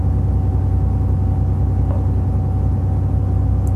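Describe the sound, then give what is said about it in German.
A train's locomotive engine idles steadily while the train stands waiting, a deep, even rumble with a low pulsing throb and a faint constant tone above it, unbroken throughout with no voices. “Die Lok läuft ruhig vor sich hin.”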